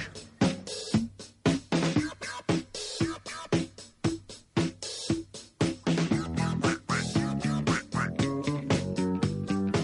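An upbeat disco song plays loudly with a steady, punchy dance beat, punctuated by short nasal cartoon-duck quacks bursting in rhythm over the music.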